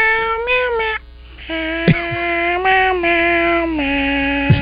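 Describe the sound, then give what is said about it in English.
Drawn-out cat meows on an album recording follow one another in steady succession. They are loud, with shifting pitch, almost like a tune, over a faint low hum and with no talking. “You've done the one with the uh, cats. Yeah, the cats.”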